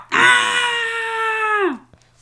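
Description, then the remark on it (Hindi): A single loud, sustained roaring scream from a human voice imitating a dinosaur, holding steady for over a second before dropping off sharply. “अच्छा तो जब विजय डायनासोर ने उस बूम बॉक्स को खोला तो देखा आलू और आलू विजय को बिल्कुल पसंद नहीं है खाना तो वो बहुत जोर से चीखा”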